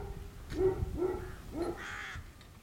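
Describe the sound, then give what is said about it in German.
A gull cries out three or four times in quick succession, harsh, nasal calls rising and falling over about two seconds, clear above a low background murmur. “Nur ab und zu hört man den Schrei einer Möwe oder die helle Stimme einer Wachtel, die in der Steppe widerhallt.”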